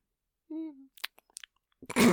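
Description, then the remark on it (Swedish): A person imitates sleep noises with their mouth: a short hummed tone, then a string of soft clicks, smacks and lip pops, ending in a louder breathy burst. “nej men du snarkar inte sådär traditionell snarkning, mm. men du låter i sömnen.”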